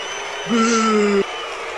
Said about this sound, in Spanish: Pues al señor está aplaudiendo como pendejito, yo creo que no le pareció tan mal, güey. No, está aplaudiendo porque ya se acabó, güey.